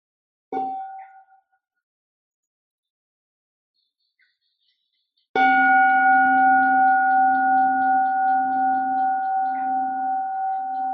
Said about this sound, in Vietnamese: Xin sư cô thỉnh một tiếng chuông cho mọi người buông thân.